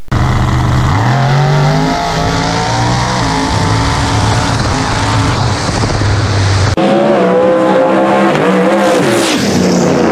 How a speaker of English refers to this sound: It's a station wagon, Chevy Nova station wagon, nitrous. Let's check that race out right here.